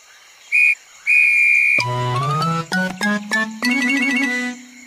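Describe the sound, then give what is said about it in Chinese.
A toy whistle, a prize found inside an Easter egg, gives two short, shrill high toots, then switches to a loud, buzzy, reedy tone that rises slightly in pitch and breaks into several quick blasts. No one speaks. “哦，一只口哨。”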